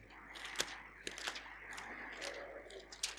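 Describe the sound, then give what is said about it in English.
Steady, soft hiss of a rain shower drumming on a roof, overhead and fairly quiet, broken by scattered sharper taps and clicks as heavier drops hit. No one speaks. “Hopefully, just a passing shower.”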